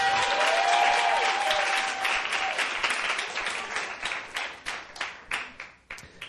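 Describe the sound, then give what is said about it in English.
A crowd applauds with dense, steady clapping that gradually thins out, ending in a few scattered individual claps. A faint whistle-like tone rises briefly near the start. “No, you got to raise it up at 5, and they're supposed to clap.”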